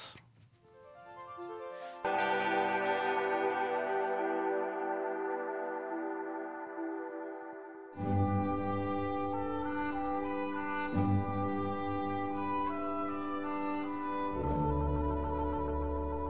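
A new pop single played on Radio Revolt begins with soft tones, swells into a sustained bright synth chord, then the full arrangement enters with deep bass and a steady beat, playing loudly without talk.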